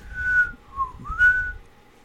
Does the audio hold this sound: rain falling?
no